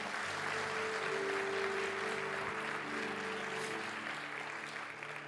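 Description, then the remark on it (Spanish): A crowd applauds a visiting friend from El Salvador and his wife, steadily for about five seconds, a dense, continuous wash of clapping with a sustained low hum or tone running underneath, fading slightly at the end. “Vamos a darle un fuerte aplauso a él y a su esposa.”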